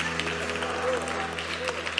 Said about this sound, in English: Come on and give the Lord a hand clap. Amen. Hallelujah.